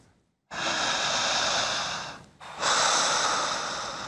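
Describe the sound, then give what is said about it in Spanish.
A slow, deep resting breath taken during relaxation: a long airy inhale, a brief pause, then an equally long, steady exhale, with no talking. “Una respiración de descanso.”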